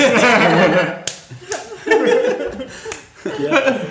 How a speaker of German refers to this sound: Das nächste Klatschen, das ihr hört, ist ein High Five.